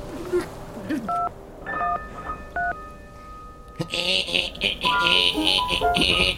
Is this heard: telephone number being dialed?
yes